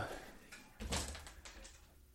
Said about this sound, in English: If you're hearing any noise going on, there's a pair of cats chasing each other around the recording room because they're cats and they do whatever the hell they want.